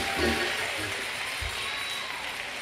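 A church audience claps together in a steady, dense wash of applause that holds at an even loudness for the whole stretch, with a few low thumps underneath.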